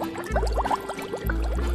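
A pot bubbling on the stove as aquarium substrate is boiled for a new aquarium: quick, irregular gurgling pops, rising and falling in a busy cluster over a steady low hum, with no voices.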